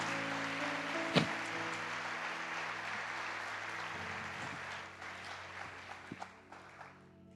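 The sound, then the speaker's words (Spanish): A crowd claps steadily together in applause for the Lord, a dense wash of applause with a few sharper claps standing out, tapering off toward the end over a low sustained musical drone. “un aplauso al Señor porque así es nuestro Dios.”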